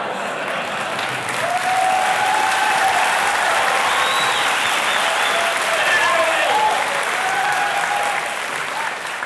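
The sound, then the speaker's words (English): Sustained audience applause for a performer who has just fallen over dead in the act, a dense, steady wash of clapping from a large crowd, with faint cheers and whistles rising above it now and then. “He falls over dead and gets a great applause from the audience.”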